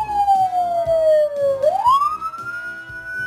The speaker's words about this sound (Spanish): Y otra de las cosas también es que cuando una ambulancia pasa cerca de ti o si tienes música o algo, bajarle la música cuando pasa la ambulancia.